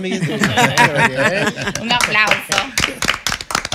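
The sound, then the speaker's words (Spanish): A group applauds to congratulate the president of the Chamber of Deputies, Alfredo Pacheco, on his birthday: a quick, irregular patter of sharp claps that grows denser toward the end, mixed with lively voices and laughter throughout. “Cámara de Diputados, Alfredo, Pacheco, que estuvo de fiesta de cumpleaños, que es amigo nuestro. un aplauso.”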